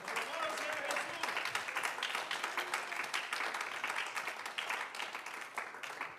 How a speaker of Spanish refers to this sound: Bríndele ese aplauso al Señor en esta hora.